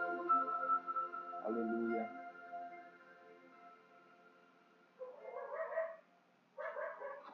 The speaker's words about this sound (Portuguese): Se você ouviu meu cachorro latindo, não se incomode com isso. Cachorro late mesmo.